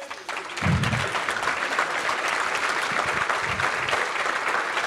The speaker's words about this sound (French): Oh, j'aimerais bien demander à ces trois euh, jeunes hommes de venir sur la scène s'il vous plaît. Applaudissez-les.